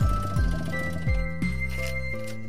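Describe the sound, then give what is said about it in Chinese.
A motorcycle engine pulls up outside an old apartment building, its deep throbbing note falling in pitch with each of several throttle blips before settling into a steady, rumbling idle. “是他机车的声音。”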